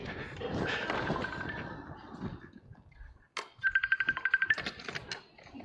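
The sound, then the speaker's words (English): An electronic alarm tone rings from an iPad in a rapid pulsing burst of bright beeps, clear, following a stretch of muffled background noise. “it was coming from my iPad. I, I, must have set an alarm or something.”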